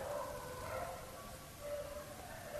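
A dog barks and howls in drawn-out, wavering tones that carry steadily through the whole moment at moderate volume, with no one talking.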